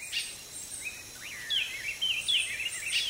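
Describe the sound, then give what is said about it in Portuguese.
Several birds of many colors and sizes call and chirp in quick, overlapping phrases against a steady background hiss, moderately loud, with short whistled notes repeating throughout, heard in strong sun on the way to a waterfall. “Avistamos pássaros de múltiplas cores e tamanhos.”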